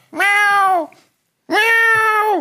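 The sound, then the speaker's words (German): A voice imitates a cat, giving two loud, drawn-out meows separated by a short pause, with nothing else around them. “Und dann stehst du so auf, so, oh nein, da ist eine Katze, die hat sich verletzt.”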